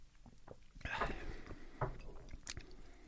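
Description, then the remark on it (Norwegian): Sipping of horseradish vodka during a toast: three short, wet slurping sounds spaced about a second apart, fairly quiet, with faint murmuring and background noise behind them. “Ja, eh, vi kan kanskje nippe.”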